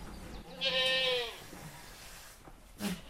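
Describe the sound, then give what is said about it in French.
A single goat, stuck in a farm building, lets out a loud, wavering bleat, followed by quieter shuffling and a brief second cry at the end, echoing indoors. “Ça, si on n'est pas régulièrement au bâtiment, la chèvre, elle est coincée là, je euh, je sais pas comment elle a fait son compte, mais euh, au bout de quelques heures, elle pourrait très bien.”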